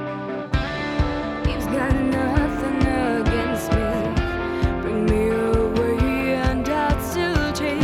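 A song by the guest band kicks in after a brief silent half second, with steady drums, bass and layered melodic instruments playing loud, no talking over it.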